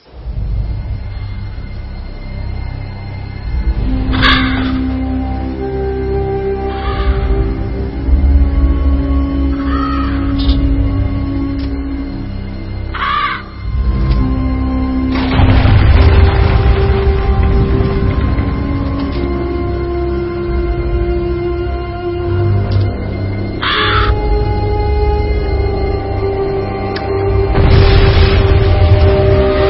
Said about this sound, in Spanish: Pero antes de empezar a hablar en profundidad sobre él, vamos a escuchar un tráiler que tenemos preparado.